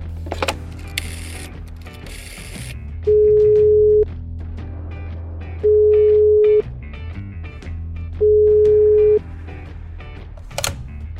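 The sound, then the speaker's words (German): A telephone ringback tone heard while a call is placed: three steady, moderately loud one-second beeps at even intervals, with clattery mechanical handling noise in the background and no talking. “also ich gehe jetzt zum Telefon, ich rufe den Senf drauf”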